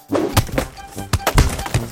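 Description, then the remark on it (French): Cardboard being crushed in a series of loud, irregular crunching thumps, each with a dull low impact and crackly rustle, about six or seven in two seconds, with no voices. “Passons maintenant à des écrasements de carton.”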